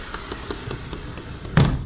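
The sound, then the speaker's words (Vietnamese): A Japanese-style sliding door at a seafood restaurant rolls open with a light, rapid wooden rattling, then comes to a stop with a louder knock near the end. No voices. “Wow, cửa lùa theo phong cách Nhật Bản luôn Nhưng bên trong lại là bàn ngồi theo phong cách châu Âu và hải sản thì đúng chuẩn của ngon vật lạ trên toàn thế giới.”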